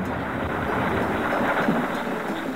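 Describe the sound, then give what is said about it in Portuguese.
A steady, muffled roar of wind mixed with low rumbling thunder, sustained without pause and fairly loud throughout, with no voices; a recording among the sounds of Earth. “Trovões, vento”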